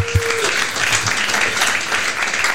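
Steady audience applause as the evening's hosts are called onto the stage, a dense wash of many hands clapping at an even loudness, with a brief low tone fading out near the start.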